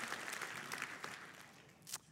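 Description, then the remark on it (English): An audience claps for the speaker's late father for a couple of seconds, a dense crackling wash of many hands that stays fairly steady and then thins out, with no voices over it. “Would you give my dad an applause?”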